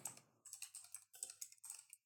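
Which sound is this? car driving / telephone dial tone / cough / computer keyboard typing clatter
computer keyboard typing clatter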